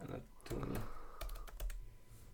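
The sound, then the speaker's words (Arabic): Rapid clicks of someone typing the word anatomy into a Google search on a computer keyboard, a quick run of keystrokes with faint background voices. “اسمع اسمع اسمع اكتب اناتومي بتطلع اكيد بتطلع”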